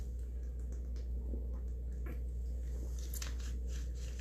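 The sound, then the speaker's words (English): Someone takes quiet sips from a drink, with soft wet mouth sounds and small clicks spread across a few seconds over a steady low hum. No one speaks. “So I'm gonna get a sip, and we're gonna pray and get started.”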